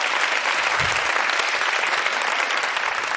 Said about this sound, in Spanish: Me están cabreando, no sé, no sé. si están aplaudiendo con ironía o no.